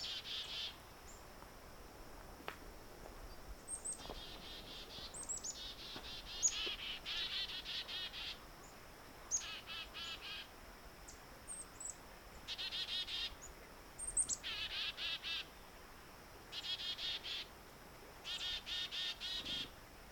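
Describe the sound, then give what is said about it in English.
A family of downy woodpeckers call again and again in short, sharp bursts, several birds trading notes over a steady background of insect buzz. No one speaks. “downy woodpecker There's a whole family of them here.”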